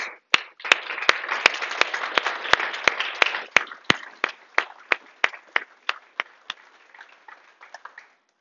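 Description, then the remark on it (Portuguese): An audience at a sermon applauds for Jesus, a dense wash of clapping cut through by loud, steady claps in unison that keep a regular beat, then thin out and fade over several seconds. “Eu aplaudo meu Senhor Jesus.”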